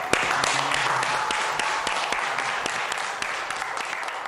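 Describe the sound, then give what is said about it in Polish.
A room full of people at the Mohammed bin Rashid Space Centre bursts into sustained applause celebrating the Emirates' Al-Amal (Hope) probe safely entering Mars orbit, dense overlapping claps with a few sharp louder ones up front, and faint cheering voices mixed underneath. “To, co właśnie usłyszeliście, to radość w Emirackim Centrum Kosmicznym Mohameda bin Rashida po tym, jak Al-Amal bezpiecznie znalazła się na orbicie.”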